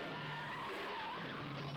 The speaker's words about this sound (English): Oh, that Charger just fucking got it. Oh, I hate seeing these old cars getting banged up.